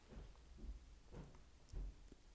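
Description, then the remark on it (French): Heavy, muffled footsteps of a young girl thud down a staircase, four dull low bumps at a steady walking pace, fairly quiet, with no talking. “C'est ses ces pieds qu'on entend sur l'escalier.”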